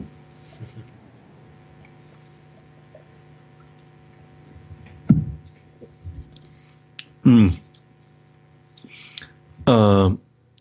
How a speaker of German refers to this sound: Und bei der Gelegenheit werde ich einen Schluck Wasser trinken.